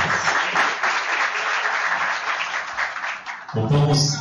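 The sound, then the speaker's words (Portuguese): A crowd claps steadily in a dense, even wash of applause for several seconds as guests are invited to join the panel table, then a voice begins speaking as the clapping continues underneath. “Uma salva de palmas.”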